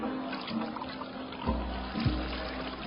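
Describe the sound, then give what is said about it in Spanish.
Water pours steadily as servants fill six stone jars, a continuous splashing trickle with a couple of deeper, hollow sloshes partway through; no voices, just the liquid filling at moderate loudness. “Llenen las tinajas con agua.”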